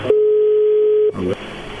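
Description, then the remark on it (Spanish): A phone ringing tone sounds once as a call is placed, a steady electronic beep lasting about a second over a thin telephone line, then cuts off into faint line noise and a brief chirp. “A ver, ya entra de nuevo.”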